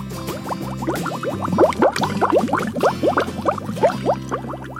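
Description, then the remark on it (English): Water bubbles steadily and densely, with dozens of small overlapping gurgles and pops rising in quick succession for several seconds, fairly loud, with no voices. “And up come the bubbles.”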